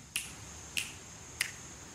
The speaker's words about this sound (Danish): Jeg skal faktisk have jer til at øhm, knipse lidt. Ja? Ja, i øh, den her. I takt med hinanden?